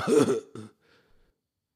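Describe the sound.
Someone imitates a cough with a loud, rough burst followed by a shorter second hack, then a brief faint rasp and silence, with no other speech.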